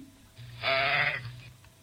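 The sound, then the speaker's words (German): A single sheep bleats once, a loud, wavering baa lasting about a second, against a quiet background. “So, und das dritte Tier, das wäre jetzt das Schaf.”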